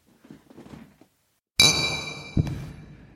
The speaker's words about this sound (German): aber wir sollten erstmal anstoßen, ne?